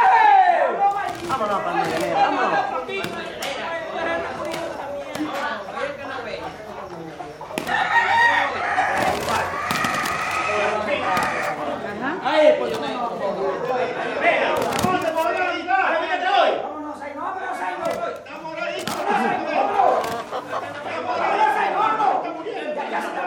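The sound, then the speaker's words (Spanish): Roosters crow and cluck repeatedly at a cockfight over a noisy crowd, with people talking and shouting throughout, the birds loud amid the constant chatter. “Los hombres buscan el oro que gastarán más tarde en las peleas de gallos.”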